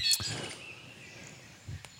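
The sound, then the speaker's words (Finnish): Birds chirp in short, high bursts near the start, fairly faint against a steady background hum, with a couple of low thumps scattered through the brief stretch. “Linnut lau- laulaa. Alko laulaa nopeampaa, ei lujempaa.”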